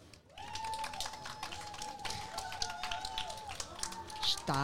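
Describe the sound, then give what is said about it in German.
An audience at a live show claps steadily for several seconds, a dense patter of many hands with a few cheers and whoops rising over it. “Und da es live ist, dürft ihr jetzt einmal klatschen.”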